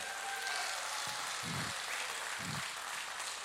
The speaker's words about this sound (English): The saddest part about that is they all clapped for that and nothing else that I said.